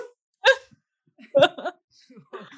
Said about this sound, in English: At the end of every episode, she asks her dog if he enjoyed it, and he goes, "Oh."